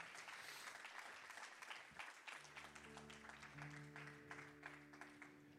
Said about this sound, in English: Come on, somebody who believes it, give the Lord a strong hand clap.